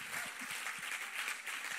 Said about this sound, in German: Geben wir mal den Locations, die zu unserer Familie dazugehören, einen riesen Applaus.